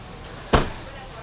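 A pickup truck door shuts once with a short, solid thump, fairly loud, then quiet steady background returns; the truck's electric running board retracts after a short delay.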